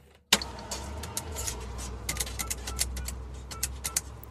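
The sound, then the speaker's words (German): A yellow public payphone booth in use: a sharp clunk, then a run of irregular mechanical clicks and rattles over a steady low hum, moderately loud, with no voices. “Es ist der Sound einer Telefonzelle das sind diese gelben Dinger, die viel in Städten rumstehen oder rumgestanden haben.”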